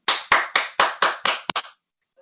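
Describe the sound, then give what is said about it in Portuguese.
A king knocking on the door of a peasant's cabin: about eight sharp, fairly loud raps in a steady rhythm, the last two coming quicker together, then silence. No voices. “Com essa pergunta na cabeça, o rei respirou fundo e bateu na porta da cabana.”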